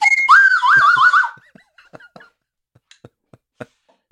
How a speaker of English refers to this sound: We have an array of slide whistles where there are fucking multiple train choo choos.